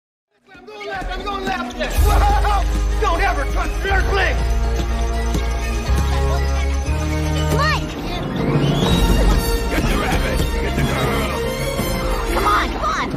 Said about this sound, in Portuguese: Fecha os olhos agora, né? Fica só ouvindo o barulho da torcida. Então são os segundos finais da partida de 1996.